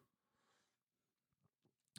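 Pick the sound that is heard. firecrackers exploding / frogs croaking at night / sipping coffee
sipping coffee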